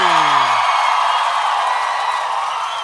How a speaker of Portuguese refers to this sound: Aplausos, aplausos para ele, aplausos para ele.